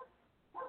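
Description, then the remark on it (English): A dog barks briefly, a short faint yelp at the start and then a louder, fuller bark a moment later, with no one speaking. “and please excuse my dog.”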